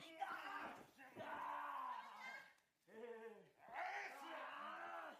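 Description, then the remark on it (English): A wrestling crowd at a match between Goto and Tama cheers loudly, with rising, chant-like shouts that swell in long waves, dip briefly, then surge again. There is no clear talking. “Like you hear that he has like a little bit of fans in the crowd and whatnot.”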